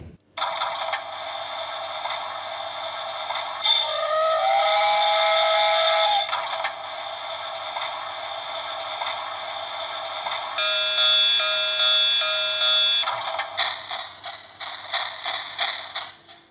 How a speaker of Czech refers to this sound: Kdo se teď nenechal zmást jednou pasáží, ve které to vypadá, jako když kokrhá kohout a hádá, že to je parní lokomotiva, samozřejmě v modelu dětského provedení, tak ten uhodl.